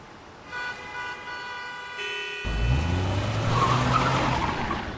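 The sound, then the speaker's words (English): Road traffic on a busy six-lane highway in Santiago, Chile: a sustained horn-like tone gives way to loud engine roar and rumbling vehicles passing, with a brief squeal of tires, and no one speaking. “Last week, the dog was caught on a surveillance camera on a busy highway in Santiago, Chile.”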